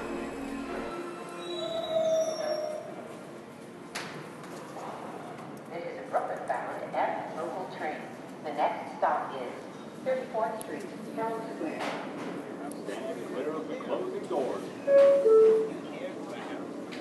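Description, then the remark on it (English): Steady footsteps crunch along an icy sidewalk in Dumbo in an even walking rhythm as a person walks from the subway station to an office, with city ambience and some faint voices in the background. “I'm walking from the subway station to my office through the ice on the sidewalk.”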